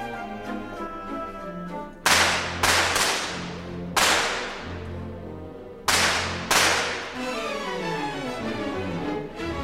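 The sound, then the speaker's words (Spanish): Orchestral ballet music is punctuated by a handful of loud, sharp gunshot sound effects, some in quick pairs, each ringing out briefly before the strings and winds carry on underneath. “teníamos las balas que sonaban y que ofendieron a, los a los críticos.”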